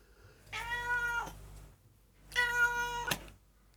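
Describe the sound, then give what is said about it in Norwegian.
A cat meows twice, two drawn-out, fairly loud calls roughly a second apart, each with a slightly falling end, with no talking. “Mjau, mjau, mjau.”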